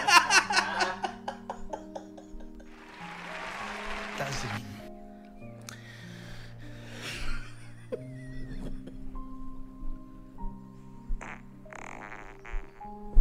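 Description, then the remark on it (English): A recorded fart sound sent in and played back, a long, buzzy, drawn-out rasp with wavering pitch and bursts of sputter, fairly loud, with some laughter mixed in. “See, we got great farts.”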